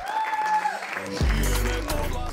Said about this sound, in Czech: Na před premiéře pro pozvané si tempo nenechali ujít kolegové z branže a po promítání mu všichni zatleskali.